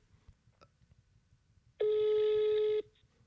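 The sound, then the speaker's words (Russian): A phone's ringback tone on speakerphone during a call to a mother: one steady, loud, mid-pitched beep lasting about a second, rising abruptly out of a faint low rumble and cutting off cleanly. “Давай, сейчас я поставлю на динамик.”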